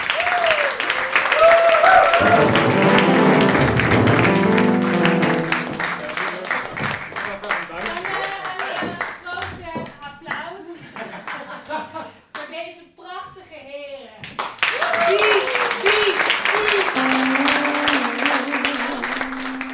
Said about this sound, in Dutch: Eh, de mensen klapten nog heel lang door. En sommigen gingen ook met een toga wapperen.